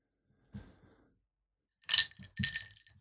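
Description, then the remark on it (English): A few bright glass clinks ring out: one soft tap early on, then two louder, sharper clinks near the end, with no one speaking. “Yeah, I think you should definitely be clinking that away.”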